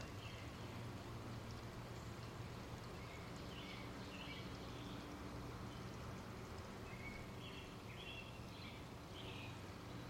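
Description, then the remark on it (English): Steady, soft wash of water outdoors, faint and continuous beneath a low hum, with scattered bird chirps dotting the background throughout. “stand still and you see if you can pick out the sound of water.”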